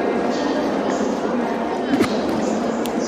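A reverberant departure hall at Incheon Airport with steady crowd murmur, and a muffled boarding announcement over the PA directing passengers to gate 13, blending into the constant background hum, with a faint clatter near the middle.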